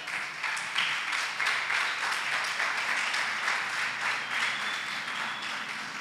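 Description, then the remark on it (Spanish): A church audience applauds the King (Jesus) steadily, many hands clapping in a dense, even wash of sound that holds at a fairly constant loudness for several seconds without any voices. “Aleluya, denle un aplauso al rey, denle un aplauso al rey.”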